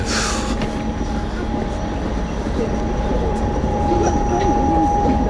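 Inside a moving passenger train bound for Lyon during a rail strike, in car 25 of a completely empty trainset: a steady, loud low rumble of wheels on track, a constant thin tonal whine above it, and a few faint squeals near the end.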